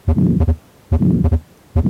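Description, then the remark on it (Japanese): Loud heartbeat cycles from a stethoscope, about three beats, each with a rushing systolic murmur and a widely split second sound whose split width does not change, matching atrial septal defect heart sounds. No voices. “このように2音の分裂が広くて収縮期の雑音が聞こえるというのが心房中核欠損の時の心音です。”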